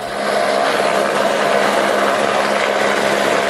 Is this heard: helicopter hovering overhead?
yes